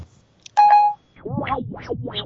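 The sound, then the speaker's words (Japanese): An iPhone's voice search accidentally starts placing a call: a tiny click, then a steady electronic beep, followed by a rising and falling warbling dial tone, fairly loud with no talking. “iPhone の音声検索ね、ああ時々土地狂ってね、電話かけるんですよね。”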